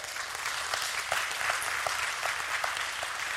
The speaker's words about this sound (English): Please clap for that.